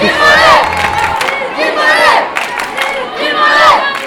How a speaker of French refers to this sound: Et moi j'étais très surprise de l'ambiance, une très très bonne ambiance. Euh, on entend plein d'encouragements, euh, y compris pour les derniers.